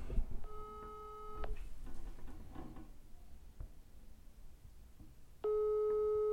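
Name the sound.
telephone ringing tone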